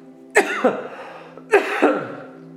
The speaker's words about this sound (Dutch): Ik verslik me in het water, jongens.